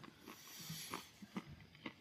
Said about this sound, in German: Das ist immer gut, wenn man einen Satz anfängt und erstmal Nüsse sich in den Mund stopft.